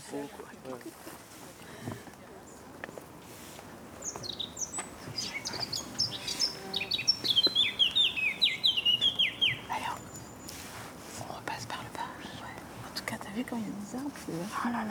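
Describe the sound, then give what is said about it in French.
A bird chirps a quick run of bright, descending notes midway through, clear above a steady outdoor ambience with lapping water and faint voices in the background. “C'est quoi l'oiseau qu'on entend du coup”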